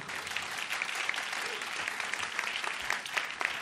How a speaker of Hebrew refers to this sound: אז מגיע להם מחיאות כפיים.